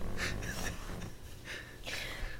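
A person snorts in a few short, breathy bursts, two clusters of nasal huffs close to the mic with no talking, fairly quiet overall.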